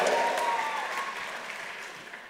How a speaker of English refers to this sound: I want to hear you cheer for them. Wait a second. I want to hear you cheer for them. There we go.